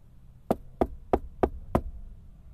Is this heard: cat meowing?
no